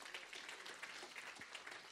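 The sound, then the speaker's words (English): A crowd applauds steadily in appreciation, welcoming a man coming up to minister, a dense wash of many hands clapping at once, sustained and fairly even throughout with no pauses. “Give him a hand clap of appreciation.”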